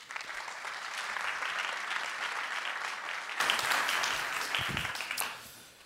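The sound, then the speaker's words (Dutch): Steady audience applause for a cycling writer whose pieces appear on Het Is Koers, a dense wash of many hands clapping at an even loudness for several seconds, swelling briefly near the end before tapering off. “Mag ik een applaus voor Frank Heijnen?”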